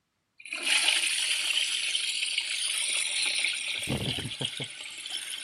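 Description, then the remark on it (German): A toilet flushes with a sudden, steady roar of rushing water that holds for several seconds, broken near the end by a few low gurgling thumps as the bowl drains. “Ob wirklich alles runtergespült wurde oder ob noch Teile an der Oberfläche stehen.”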